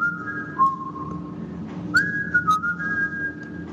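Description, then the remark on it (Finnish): Someone whistles a slow, sustained melody with long held notes and gentle pitch slides, sounding clear in a reverberant space, with a low background hum underneath. “Onpa Hänellä on oikein kaiutettu tila, huomaatko? Hän on mennyt hyvää vihelystila.”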